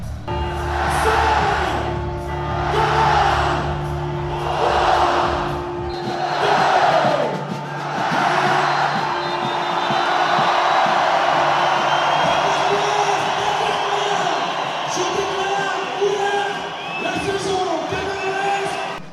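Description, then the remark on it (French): A large carnival crowd at the Kursaal in Dunkirk roars and shouts in dense, swelling waves as the twelve strokes of midnight ring out, loud, with scattered whoops and cheers rising above the continuous din of many voices. “Les douze coups de minuit retentissent, l'instant est solennel, la foule hurle.”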